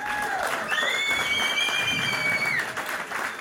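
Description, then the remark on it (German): A crowd applauds with dense, steady clapping, and a few shrill whistles and cheers rise above the noise for a couple of seconds. “Also dafür vielleicht schon mal einen kleinen Applaus, na, einen großen Applaus.”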